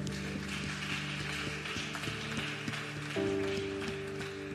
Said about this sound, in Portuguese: Aplauda ao Senhor e se coloque de pé.